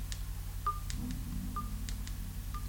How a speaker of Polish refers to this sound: Z głośnością musimy poradzić sobie w ten sposób, że jeśli teraz nacisnę sobie głośność, głośniej robię, słyszymy taki Klik to jest podgłaszanie dzwonka.